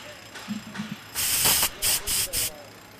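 A spray can hisses in a long burst followed by three shorter sprays, loud, after a few soft clicks and rattles, as paint is sprayed over grey cement blocks.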